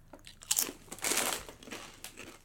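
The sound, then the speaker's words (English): Loud, sharp crunching of a spicy Dorito tortilla chip being bitten and chewed, a burst of crisp cracks followed by several rougher, uneven crunches with no talking. “I'm worried this is going to be the thing that does it.”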